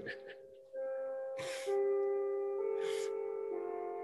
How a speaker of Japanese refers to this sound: これは終わりのチャイムですか 時間切れ時間切れですかこんな M1 みたいな見解があるんですね チーンってなりましたけども。チャイムなりましたね。チャイムなりましたね。